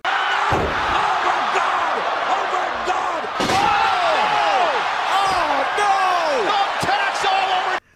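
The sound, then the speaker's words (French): A chaotic general brawl at the end of a football match between Monaco and Olympique Lyonnais: many voices shouting and yelling over each other nonstop, punctuated by several loud, sharp thuds and slams, intense throughout. “Vous l'avez compris, baston général à la fin du match, carton rouge en pagaille.”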